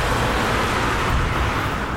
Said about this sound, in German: Wahnsinn, wie viel Verkehr da ist, oder? Cool. Das ist ein so kleiner Ort, mhm. aber wieder. Da donnern es durch die Autos. Da donnern es echt durch.